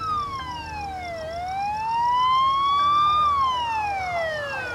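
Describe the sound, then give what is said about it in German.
Police and rescue vehicle sirens wail steadily as the vehicles arrive at a park, the pitch sliding down, then rising slowly and falling again in long sweeps, fairly loud over a low rumble of road traffic, with no voices. “Polizei und Rettungskräfte kommen.”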